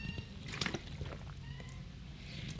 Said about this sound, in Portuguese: Aqui, vou beber uma água aqui, uma água. Hum.